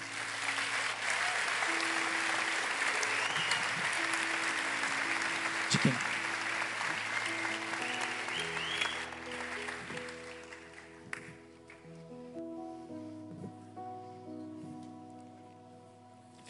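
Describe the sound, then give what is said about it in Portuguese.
A church audience bursts into sustained applause to honor members who joined 19 years earlier. It is a dense wash of clapping that runs loud for several seconds before thinning out, with steady organ or keyboard chords underneath and a brief spoken question. “A igreja pode reconhecer com uma salva de palmas?”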